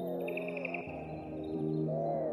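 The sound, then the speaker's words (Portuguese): A European greenfinch sings a quick, beaded trill in the first second in the gardens of Serralves, set against a loud, steady, low humming tone with gliding harmonics that continues throughout. No one speaks. “O verdilhão tem um chilrear possante.”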